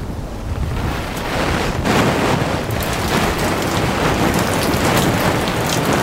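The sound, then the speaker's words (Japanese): Water from a watering can is poured from above onto a vinyl umbrella, a dense, continuous patter like heavy rain drumming on plastic, with no voices; part of a test comparing it with a noise-reducing Silent Umbrella. “ではですね早速このサイレントアンブレラ、まあ、音がどれぐらい消されるのかというのをですね実験してみましたので、うん、その様子をお聞きくださいえまずはビニールの傘にお水を上からじょうろでかけてみたいと思います”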